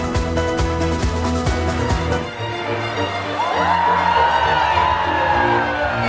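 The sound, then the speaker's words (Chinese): A crowd cheers and whoops as the Christmas lights are switched on along the Champs-Élysées in Paris, France: a broad wash of voices with rising shouts, following a few seconds of steady, dense sound at the start; the cheering stays fairly loud throughout. “灯亮的瞬间，民众一起欢呼。”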